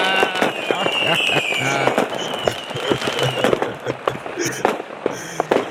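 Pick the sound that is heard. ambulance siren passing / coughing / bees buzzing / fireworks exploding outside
fireworks exploding outside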